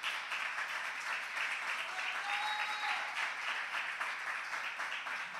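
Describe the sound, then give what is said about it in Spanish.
An audience applauds the Lord during a church sermon, a dense, continuous wash of many hands clapping at an even level for several seconds, with a faint high tone briefly rising above the noise midway. “Creo que sí, dale un fuerte aplauso al Señor.”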